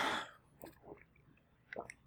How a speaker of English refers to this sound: let me take a little sip of water